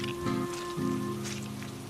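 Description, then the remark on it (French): Steady rain falls continuously on a mountain path in a dense, even hiss, with a low sustained tonal drone underneath throughout. No one speaks. “La pluie avait rendu le sentier encore plus glissant qu'à l'aller.”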